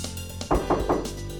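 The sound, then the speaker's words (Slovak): Three quick, evenly spaced knocks on the wooden door of the grandmother's cottage, as the wolf knocks, firm and hollow-sounding, with no voices during the knocking. “Tak letel lesom ako blesk dobehol ku chalúbke a zaklopal na dvere.”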